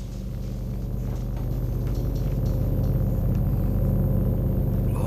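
A large flying boat's engines drone steadily in flight over the Atlantic, a dense low rumble with a throbbing tone that holds constant and loud throughout, with no voices over it.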